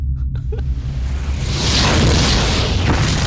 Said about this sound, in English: The ball is in the goal. Well, the, the, the meteor's in the goal. The goal is on fire. An explosion's happening.